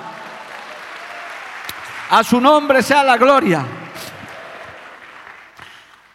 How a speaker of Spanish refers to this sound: ¿Cuántos le dan un aplauso a Dios por eso, amado hermano?